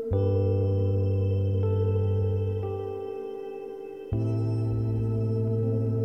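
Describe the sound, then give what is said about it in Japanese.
A deep bass line is added to a track being built up layer by layer, holding sustained low notes beneath layered electronic piano and synth chords, with no voices. It drops out briefly midway, then returns firmly together with the fuller chords. “ノイズ追加しますじゃあ次シンセの音追加しますベースの音追加します”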